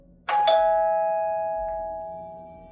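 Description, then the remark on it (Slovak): A doorbell rings once with a quick two-tone chime, its bright tone lingering and slowly fading. No one speaks. “Bola som tak sústredená, že som skoro vyskočila z kože, keď zazvonil zvonček.”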